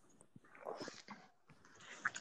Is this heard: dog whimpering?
yes